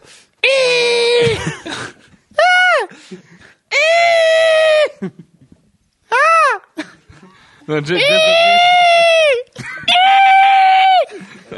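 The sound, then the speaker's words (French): People take turns imitating the superhero Banshee's piercing sonic scream: about six loud, shrill, wavering wails in close succession, some short and some sustained, separated by brief pauses with a bit of laughter. “Je propose que tout le monde essaye de faire un son Banshee.”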